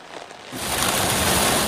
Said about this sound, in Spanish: La tormenta trae una combinación de lluvia, fuertes vientos, bajas temperaturas y mucha nieve.